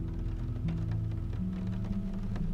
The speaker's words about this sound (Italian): Senti, sì, senti la pioggia che batte sul vetro. Vedi l'acqua che scivola sulla finestra.